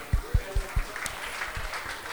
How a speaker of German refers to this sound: mal einen großen Applaus an das Team von Coolmans, dass wir das heute hier machen dürfen.